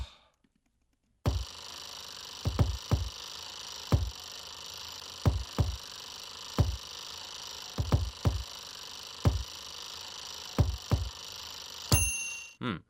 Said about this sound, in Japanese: でここに、えー、そんなもんかさゆりオーブントースターの音を入れていきましょうか